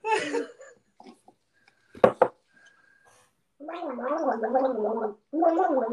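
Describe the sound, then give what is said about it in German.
Someone gargles water in two long bubbling bursts with a wavering, throaty tone, preceded by a brief throat sound and a couple of sharp clicks. “Fängst du an zu gurgeln?”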